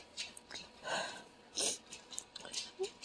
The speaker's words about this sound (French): Donc, je sais pas si t'entends mon chien marcher. Il est en train de me dire qu'il reste 35 minutes avant sa bouffe.